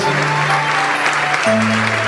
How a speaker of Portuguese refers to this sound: Vamos aplaudir mais o Senhor Jesus, vem para cá. Olha quanta gente, vamos aplaudir mais o Senhor.